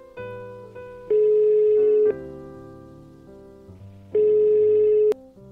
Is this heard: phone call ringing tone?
yes